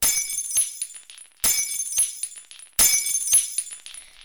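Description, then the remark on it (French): Light bulbs in a living room shattering three times in a row as a girl's screaming makes them explode, each a sudden bright crash followed by a second or so of high tinkling fragments, evenly spaced and fairly loud, with no voices. “Pour leur montrer à quel point elle détestait ça, elle hurla encore et encore en faire exploser toutes les impouilles salon.”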